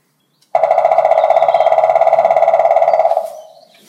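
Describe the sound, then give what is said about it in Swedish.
A black woodpecker drums in one long, powerful roll of very rapid, even hammering that lasts nearly three seconds, then tails off quickly. No voices are heard. “Sen kommer en lång trumning här, spillkråka, kraftig.”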